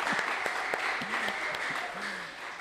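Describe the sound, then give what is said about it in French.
A crowd claps for the young people steadily for a few seconds, a dense, even wash of applause with scattered sharper claps and a few voices rising briefly underneath. “Applaudissements pour les jeunes.”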